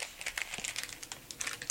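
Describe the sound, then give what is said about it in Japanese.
Crinkling of a plastic bag labeled Maldive Fish Chips, holding dried, flaked Maldive fish bought in Sri Lanka, a continuous run of dense, crackly rustles lasting under two seconds with no one speaking. “ビニール袋にモルディブフィッシュチップスって書かれていて、はい、そうですこれスリランカで買ってきたものなんですが”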